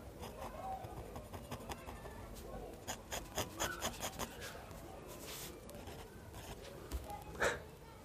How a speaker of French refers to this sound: Valentin dessine, donc voilà, on a le son de la plume sur le papier